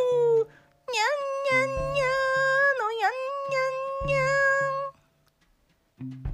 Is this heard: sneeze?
no